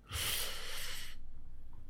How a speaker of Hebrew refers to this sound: קח נשימה ארוכה, וגם קשור, נשימות ארוכות, גם קשור לעניין הזה.